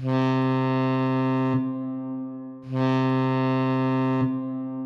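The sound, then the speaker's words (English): A ship's alarm signal on a research vessel, played during safety training, blares in two long, loud, buzzing horn blasts, each lasting about a second and a half, with a steady low drone continuing between them and no voices. “First lesson is about the alarm sounds the ship might make, like this one.”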